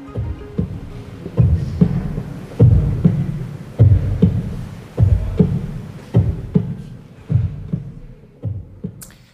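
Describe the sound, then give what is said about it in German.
A slow, steady human heartbeat, the artist's own, transmitted in real time at an art exhibition, booms through a huge oversized ring of loudspeakers: about eight heavy low thumps at an even pace, each with a rumbling resonant tail. No one speaks. “Aufgenommen ist dieser Herzschlag in Ihrer Ausstellung in Abwesenheit.”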